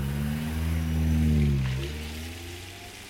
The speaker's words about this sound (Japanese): こう言って有利は今度は何度も周囲を確認し慎重に車を発進させた